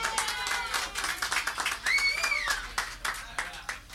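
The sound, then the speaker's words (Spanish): A crowd applauds with dense, steady clapping, while a shrill whistle rises and falls midway through and scattered voices call out beneath the applause. “Y el aplauso más fuerte, el más duro que quiero pedir es para el maestro de esto, el cerebro, el señor”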